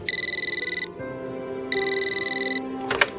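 A telephone in a house rings twice with a rapid electronic trilling tone, each burst lasting close to a second, separated by a short pause, clear, with no one speaking.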